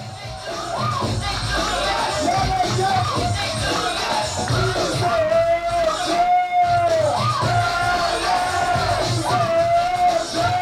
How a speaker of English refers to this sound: Luke wanted Mr. Mix to showcase his artistry, so Mix started cutting and scratching, faster and faster, working the crowd into a frenzy.